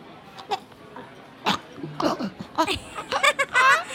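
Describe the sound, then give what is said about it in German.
Someone chokes on food, letting out a string of irregular, sputtering coughs and gasps, growing denser and more strained toward the end, with voiced, almost bleating sounds mixed in. “Jetzt hat er sich verschluckt, der Doofi.”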